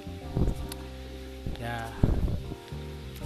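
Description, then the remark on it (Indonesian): Chicken sizzles as it fries in a pan in a kitchen, a steady crackling hiss that runs through the whole moment while a person talks briefly over it. “ngomong-ngomong ini teh direkamnya teh di ruangan tempat memasak atau bahasa kerennya mah kitchen lah jadi jangan aneh kalau ada suara ayam goreng ayam lagi digoreng gitu suara katel suara eh, gas gitu”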